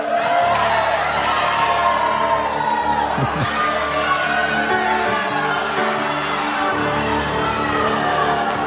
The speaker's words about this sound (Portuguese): Eu não quero que você tente derrubar essas muralhas aí com pedras, com armas. Eu vou te dar uma arma muito poderosa para vocês. Um grito ungido.